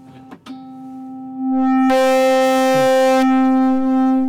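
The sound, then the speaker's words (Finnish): A steady electronic tone from a homemade electronic instrument, buzzy and rich in harmonics, swells louder and then turns harsh and distorted for over a second as a button is held down and the volume knob turned at the same time, before settling back to a sustained drone, with a few brief clicks at the start. “No, pääsimme särölle.”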